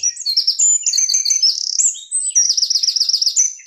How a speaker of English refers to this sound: and glorious bird song. What a great animal the bird is.